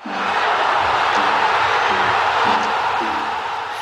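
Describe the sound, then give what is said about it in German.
A loud, dense football stadium crowd roars and cheers continuously, with rhythmic chanting and whoops rising out of the steady wall of voices. “Fußballstadien kennen die meisten von uns mit dieser Geräuschkulisse.”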